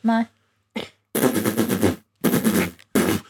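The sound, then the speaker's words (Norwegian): A voice imitates machine gun fire: a short voiced note, then three loud bursts of rapid, rattling, noisy pulses separated by brief pauses. “Det er ikke noe tunge involvert i mitt maskingeværlyd.”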